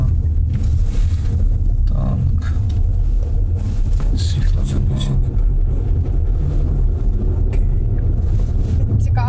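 A loud, steady car engine rumble drones on without letup, heavy in the low end, with faint muffled voices and occasional clatter over it.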